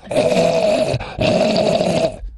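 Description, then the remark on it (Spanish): A voice imitates snarling zombie growls: two long, loud, raspy groans, each about a second, separated by a brief gap, with no talking. “Esos son los zombies.”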